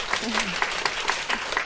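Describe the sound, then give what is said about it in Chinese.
Warm, steady applause from a crowd, a dense crackle of many hands clapping without pause, given as another round of applause for a guest stand-up comedian at a talk show interview, with a brief voice faintly sounding under it. “我们再给他一轮热烈的掌声吧，好不好？”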